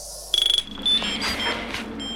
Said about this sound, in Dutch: hier kunnen op de achtergrond mijn machientje horen piepen. En ehm, en bzzzt, dus, hoe zeg je dat? Trillen? Ja. Ehm, en dat gebeurt af en toe. Dan moet ik de batterij vervangen